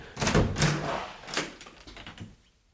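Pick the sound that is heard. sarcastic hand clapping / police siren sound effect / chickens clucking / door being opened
door being opened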